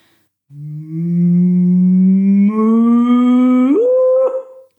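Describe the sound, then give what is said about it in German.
A voice imitates a typical cow call: one long, low, droning call that holds steady, then swoops sharply upward into a higher yodel-like pitch near the end before cutting off. “Genau, also die Kühe haben ja verschiedenste Rufe und so also ein typischer Ruf ist eben folgender.”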